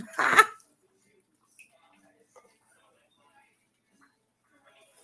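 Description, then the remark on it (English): A single short, throaty burp erupts right at the start, fairly loud, then near silence follows with only a few faint clicks. “Then it's making me burp.”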